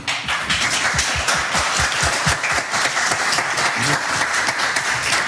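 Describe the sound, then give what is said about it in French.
An audience breaks into sustained applause after a poem reading, dense overlapping claps forming a steady, loud wash of sound that continues without a break for several seconds, no voices standing out. “On peut applaudir.”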